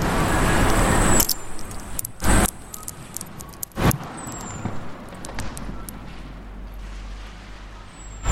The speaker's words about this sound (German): Wieder ein Auto.